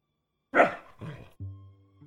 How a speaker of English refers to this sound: dog, quiet.